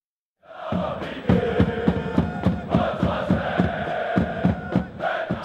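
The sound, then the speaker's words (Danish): A football stadium crowd chants loudly in unison, with rhythmic claps or stomps punching through at a steady beat after a brief silent start. “Sådan her har det ikke lyttet i godt og vel et års tid. Men sådan skal det snart lyde igen, i hvert fald hvis det står til divisionsforeningen.”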